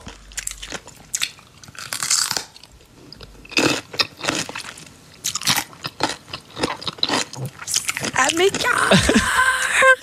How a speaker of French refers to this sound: La plus populaire, une vidéo qui est vue par presque, qui a été vue par presque ben, presque 30 millions de fois, euh, ben, c'est une vidéo où on, l'entend et on la voit manger des, gros, cornichons.